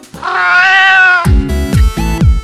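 A single long, drawn-out cat meow, loud, rising and falling in pitch, then giving way to a series of heavy rhythmic low thumps.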